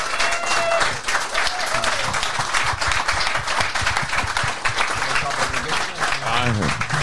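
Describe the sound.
An audience applauds steadily throughout, a dense, bright wash of many hands clapping at constant loudness, with some indistinct voices and a few whistles mixed in.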